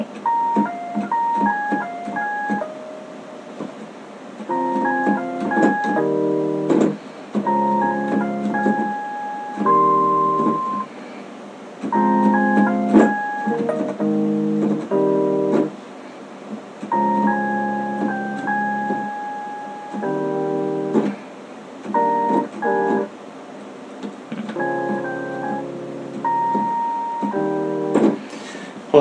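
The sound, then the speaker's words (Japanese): An electronic keyboard plays a bright, chime-like melody in short phrases separated by brief pauses, steady and fairly loud, with no voices over it. “なんですけどキーボードの音やっぱりこの”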